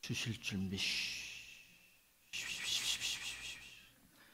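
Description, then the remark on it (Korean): A voice speaks briefly, then lets out two long, steady hissing breaths imitating a snake while praying, each lasting over a second, fairly loud. “좀 뱀소리를 내면서 그렇게 기도합니다.”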